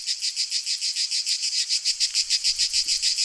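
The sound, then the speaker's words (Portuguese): Loud, shrill cicadas buzz steadily in the trees of a large garden outdoors, their droning chorus pulsing in a fast, regular throb for the whole stretch, with no voices present. “As cigarras estão muito altas!”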